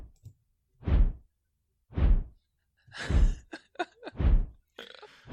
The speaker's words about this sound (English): It's large dragon wing flap. Yeah. we said wing.